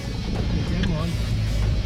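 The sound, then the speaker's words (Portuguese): The engine of a car stuck in the ground at Cumbuco, Brazil drones low and steady, revving with a slight rise and fall as it strains. The rumble is continuous, with muffled voices faintly underneath. “O carro atolou. E agora? Encalhou.”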